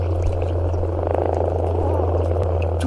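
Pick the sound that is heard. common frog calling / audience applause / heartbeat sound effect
common frog calling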